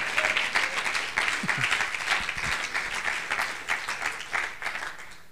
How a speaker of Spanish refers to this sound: Usted hasta aplaude, ya ve.